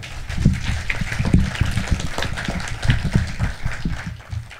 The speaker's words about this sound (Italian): Un applauso.